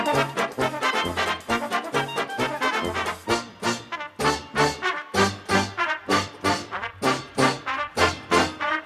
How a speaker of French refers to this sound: J'aurais aimé entendre un petit, un petit air parce qu'on n'en entend plus beaucoup de ça. Qu'est-ce que vous voulez, un petit air de Charleston Oui. Ah bah, ça y est.